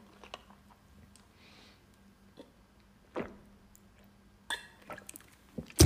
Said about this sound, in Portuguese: Desculpem, pausa para água, peço desculpa.